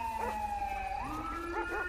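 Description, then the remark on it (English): A police dog gives a few sharp barks while sent after a fleeing suspect on East Calafia, partly buried under a loud, steady siren wail that rises in pitch partway through. No one speaks. “I'm gonna send the dog, bro.”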